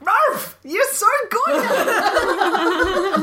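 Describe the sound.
A person mimics a small dog's yappy bark, giving two or three quick, high barks up close, followed immediately by someone speaking and laughing.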